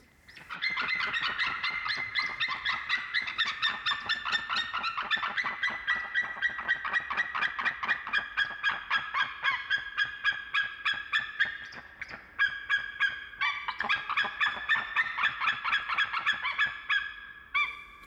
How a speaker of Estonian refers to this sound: ja mängin siin ka ühe helikatke, mis illustreerib just merikotkaid ja salvestus, kus me kuuleme kahe merikotka häälitsusi samaaegselt